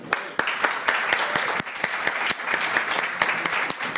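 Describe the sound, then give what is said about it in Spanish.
An audience applauds a young speaker at the end of his talk, clapping steadily for several seconds, a dense wash of many hands clapping with a few sharper claps standing out, loud, with no talking. “Otro aplauso”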